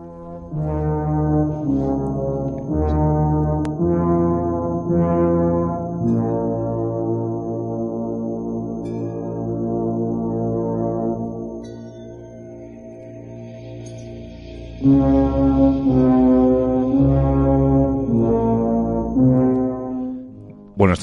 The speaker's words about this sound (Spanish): vamos a escuchando eh, el, Resplandor, de Shining, los títulos de crédito, el mind title, como se suele decir